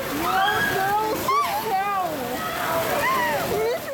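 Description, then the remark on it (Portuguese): Rushing floodwater from heavy rain forms a river through a street in a city's central area, sweeping cars along, with a loud, steady churning roar while several voices call out and exclaim over the noise of the torrent. “A chuva está levando os carros aí.”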